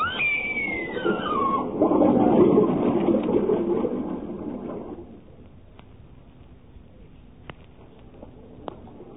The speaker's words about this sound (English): Then suddenly she disappeared before me. Water gushed down the passageway. She was swallowed by it.